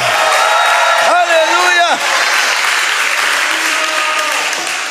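A church audience claps for the Lord and cheers loudly and continuously, a dense wash of applause with rising shouts and whoops of joy throughout.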